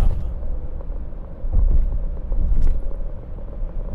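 Steady low rumble of a car cabin while driving, recorded with an AUDIX microphone, with continuous engine drone and road noise swelling slightly at moments; no one speaks.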